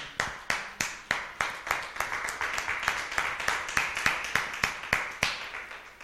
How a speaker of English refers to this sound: please do you understand someone give the lord a clap offering